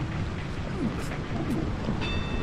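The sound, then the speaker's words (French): A steady, dense roar of a storm fills the scene, with rain and deep rumbling running continuously at a fairly loud, even level, with no clear pauses or separate thunderclaps. “Déjà qu'en temps normal, c'est pas top, mais là, en pleine tempête, j'ai vraiment du mal.”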